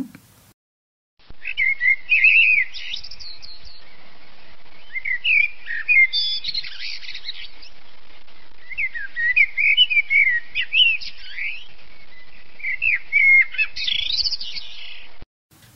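A blackbird sings alone in a clear recording, with varied warbling and whistled phrases broken by short pauses and kept at a steady, moderate loudness.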